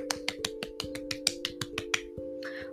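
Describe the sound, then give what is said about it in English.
A quick run of about a dozen sharp finger snaps, made to thank listeners from various countries, in a steady, fast rhythm, over a low sustained hum, with a brief breathy sound trailing at the end. “I'm sorry, I'm just gonna start clapping because snapping is.”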